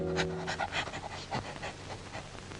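dog sniffing and panting

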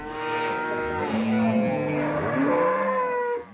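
cattle mooing

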